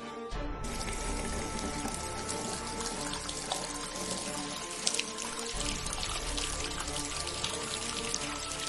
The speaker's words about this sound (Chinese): 那簇火苗已经烧爆了头顶的消防喷洒，这栋小楼的喷洒连锁反应，都开始喷起水来。